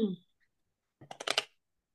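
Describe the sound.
A deck of affirmation cards is shuffled in one quick, quiet riffle, about half a second of rapid papery clicks. A short voiced sound comes just before it.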